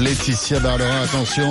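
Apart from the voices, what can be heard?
rooster crowing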